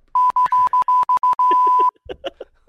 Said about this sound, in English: I'll just I'll just hit the censor over and over again. Sounds like fucking Morse code.